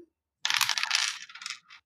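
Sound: dice being rolled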